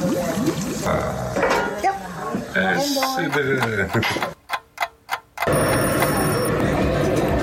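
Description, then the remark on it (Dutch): A kitchen timer, set for 20 minutes while chicken simmers on low heat in a covered pan, ticks in a short run of steady, sharp clicks, heard clearly during a brief lull between stretches of busy cooking noise and voices. “Timertje aan, 20 minuten.”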